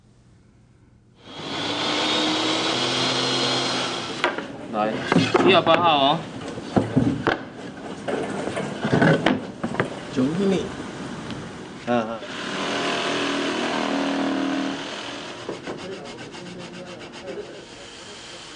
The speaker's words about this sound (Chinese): 我们来听听大家在做蜂箱的声音。